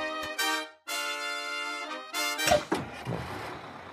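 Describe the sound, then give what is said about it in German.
Bus doors opening on a cold day with light snow: a run of loud, buzzy warning tones, then a burst of pneumatic hissing and a couple of heavy thunks as the doors swing open. “mach mal die Türen auf bitte.”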